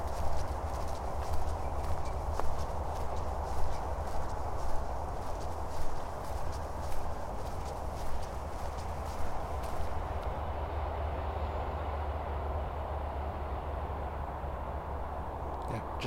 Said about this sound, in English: It's not a storm, it's not the wind, it's just the highway. It's getting louder. I don't know how close I am to the road, but certainly sounds close.